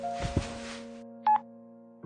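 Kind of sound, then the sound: signal or alarm, mobile phone ringtone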